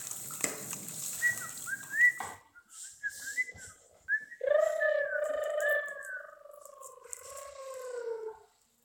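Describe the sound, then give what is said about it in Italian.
A small bird chirps cheerfully beside a pond in a meadow, first with a few quick, bright high notes, then a longer warbling, whistle-like trill that rises and falls before stopping. It sounds clear, with no talking. “Vicino allo stagno trovò un uccellino che cinguettava felice e contento.”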